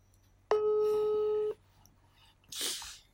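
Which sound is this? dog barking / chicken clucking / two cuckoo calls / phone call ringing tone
phone call ringing tone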